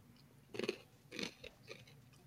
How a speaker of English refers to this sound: stop chewing in our ears.